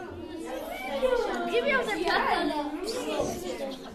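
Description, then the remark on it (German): A classroom full of children chattering at once, many overlapping voices forming a steady, lively din with no single speaker standing out. “Schaut bitte auf das Lärmometer. Wir sind ein bisschen laut gerade.”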